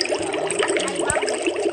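Steady bubbling and gurgling from air being blown into water, with a busy churn of popping bubbles that continues throughout without any talking.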